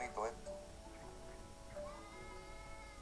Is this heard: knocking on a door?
no